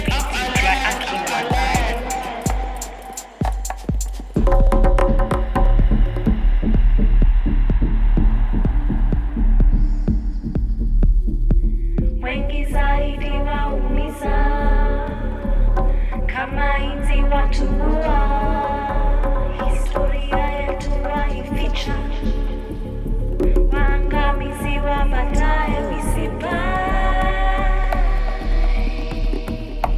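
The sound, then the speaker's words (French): Brooding orchestral music from a short film's soundtrack, built on a deep, throbbing hum, with layered sustained tones that swell and grow denser midway, playing loud and continuous without any voices. “c'est la bande-son de Terra Mater, Motherland de Conterama Geigiri”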